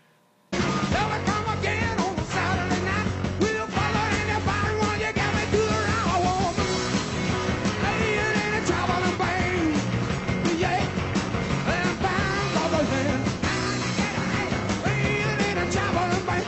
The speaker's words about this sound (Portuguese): ele está solando aqui com uma Rickenbacker, né? Que usando a alavanca, o trêmulo dela aqui.